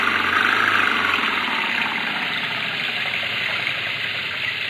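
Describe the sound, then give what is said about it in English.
A French car's engine roars steadily, a loud, rough, continuous drone holding at high power for several seconds as the car, stuck in mud, is given full throttle, with no voices over it. “They're stuck in the mud. Give it the gun,”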